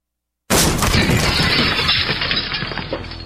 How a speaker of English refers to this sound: That's what it sounds like when a burglar kicks in the door of a dark house that looks like no one is home.